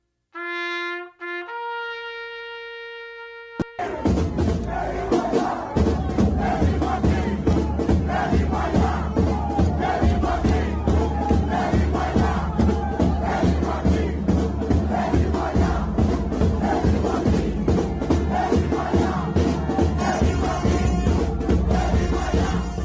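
A brief rising tone or whistle-like sound opens, then a large crowd erupts into loud, sustained chanting with a steady rhythmic pulse, dense and continuous for about twenty seconds.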